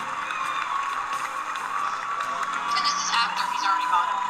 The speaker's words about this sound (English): Denzel's all happy and standing. Everybody's clapping, standing.